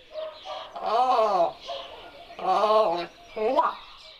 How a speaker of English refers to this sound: from deep gurgling croaks to colorful pops and shrill alarm calls, and they use them to communicate any number of things with ravens